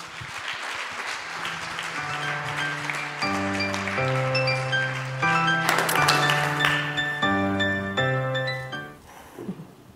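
Warm applause from a crowd welcoming a speaker, a steady dense clapping that runs for about nine seconds beneath a bright musical jingle of sustained chords, then fades out.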